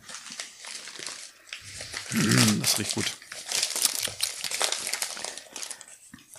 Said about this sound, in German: was raschelst du denn da rum? Ha? Ich habe fürs Paket geschaut.